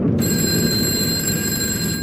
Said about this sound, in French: Mais tout d'un coup, un téléphone étonnamment vieux se met à sonner.